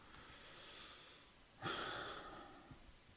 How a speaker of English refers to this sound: I, I am I'm only breathing heavy is because to take back whatever I say makes it feels as if I'm ducking, you know, responsibility or being held accountable, which I don't like either.